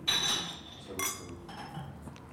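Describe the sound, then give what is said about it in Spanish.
Glasses of Tannat wine clink together in a toast in Bolivia, a bright ringing chime followed by a second sharper clink about a second later, fairly loud. “brindar con vos”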